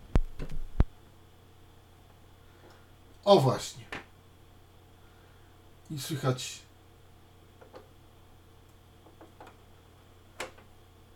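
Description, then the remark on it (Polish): Faint, regular clicks of a vinyl record's run-out groove at the end of a compilation record tick over a low steady hum, with a couple of short spoken phrases between them before the turntable platter stops and the needle comes to rest. “I teraz nam po takim trzasku talerz się zatrzymał i igła wylądowała w stanie spoczynku.”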